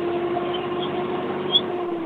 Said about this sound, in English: No, uh, it sounds like uh, the revving of an engine is up. Oh yeah, yeah. I'm driving my gas truck today.